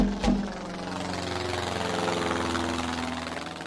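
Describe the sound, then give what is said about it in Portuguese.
An airplane engine drones steadily, a loud, continuous low hum with a rough, throbbing texture, preceded by a brief sharp thump at the very start. “Olha, olha o hipopótamo espertalhão a bater com a porta e a viajar para a África de avião.”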